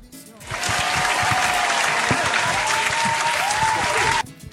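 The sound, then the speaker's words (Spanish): A crowd claps steadily for about four seconds to welcome the day's speaker, a dense, even burst of applause that starts abruptly and cuts off just as suddenly, with no voices standing out. “Eh, le damos un aplauso al señor por, la vida de, de nuestro expositor.”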